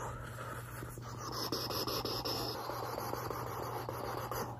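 Soft brushing strokes of a dusting brush sweep back and forth in a steady rhythm, a gentle bristly swish repeated several times over a faint low hum, with no voices, as the eyes are dusted off before being checked.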